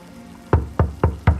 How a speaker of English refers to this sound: His familiar rhythmic rapping of the door sets my skin on fire.